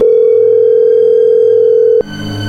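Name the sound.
telephone dial tone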